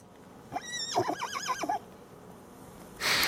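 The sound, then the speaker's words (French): A horse gives one loud whinny, rising and then shaking rapidly up and down in pitch for about a second, followed after a pause by a short, breathy snort. “C'est un cheval.”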